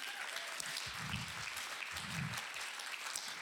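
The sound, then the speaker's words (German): Steady, dense audience applause fills the whole stretch, a continuous crackle of many hands clapping at an even loudness, with two brief low swells of crowd voices rising underneath. “Er, er rennt dann schon richtig, Applaus für,”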